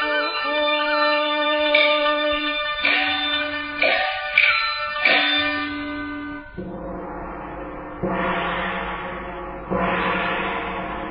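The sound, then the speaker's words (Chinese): Gongs are struck one after another: several ringing, tonal hits about a second apart, followed by three louder, washier crashes that swell and linger with no voices. “而听这一片鸣锣声。”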